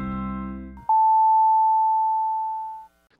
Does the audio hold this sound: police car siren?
no